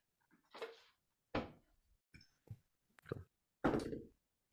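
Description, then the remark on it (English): Several short bursts of household clatter, like a door and cupboard knocking, mixed with brief high dog whimpers and scuffling as dogs are let in, with no one speaking. “Um, give me 15 seconds to let my dogs in”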